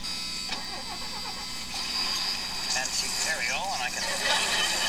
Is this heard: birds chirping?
no